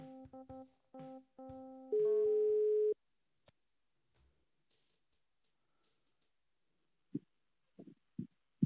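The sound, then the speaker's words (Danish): A telephone line tone plays while a call is placed to a mobile phone: a few short electronic beeps, then a longer steady tone, followed by near silence and a few faint low thumps. “Jeg synes, at vi skal ringe.”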